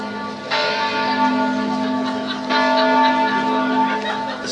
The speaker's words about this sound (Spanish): Están sonando ahora las campanas aquí en el, monasterio. Eh, supongo que será una hora punta, ¿no? ¿Qué hora puede ser ahora? Escuchamos las campanas.